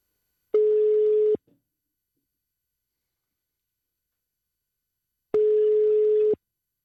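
Two long, steady electronic ringback tones about four seconds apart, each lasting close to a second, clear, with silence between them and no voices, as a phone call is placed from a live night radio show.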